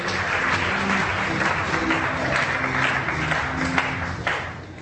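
Sustained applause from an audience, a dense, even wash of many hands clapping at steady loudness for several seconds, with no talking over it.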